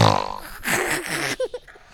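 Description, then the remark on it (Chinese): A voice imitates snoring: a buzzy, rattling low rasp followed by a loud, breathy hiss of exhaled air, then a couple of short voiced sounds. “这是笑声，这是打呼的声音，”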